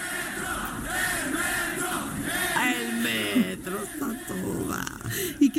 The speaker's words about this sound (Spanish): ¡Ay, viene el metro! Y todos gritan. Bueno, el metro está feliz.